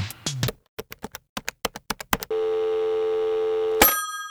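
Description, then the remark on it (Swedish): A phone being dialed: a quick run of about ten short button beeps, followed by a steady ringing tone lasting over a second, then a brief clatter as the call connects. “Ja, men då ringer vi henne nu.”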